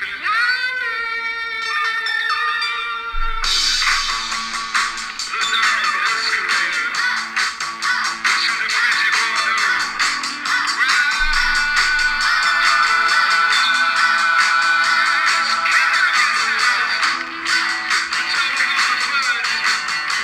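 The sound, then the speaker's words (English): An upbeat dance-rock song from the film White Noise, where it plays over the end credits, plays loudly: a few seconds of sustained, buzzy synth tones, then the full band bursts in with a dense, driving beat that keeps steady throughout. No one speaks. “My other best song pick before we go into my best scores”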